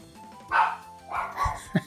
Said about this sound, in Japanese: ワンワン言ってますね。ゲームばっかりすんなと怒られてますね